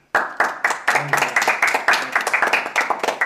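A brief burst of applause from a small group, with rapid overlapping claps forming a steady, fairly loud patter that starts abruptly and continues for a few seconds.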